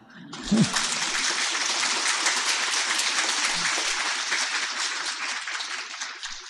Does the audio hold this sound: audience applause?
yes